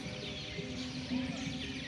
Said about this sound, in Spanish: Escuchen el aire, escuchen a los pajaritos, escuchen a los árboles, cierren los ojos.